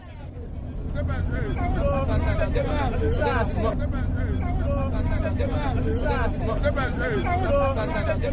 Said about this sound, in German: Wir fahren mit dem Auto auf einer Straße, die mitten durch einen Markt führt.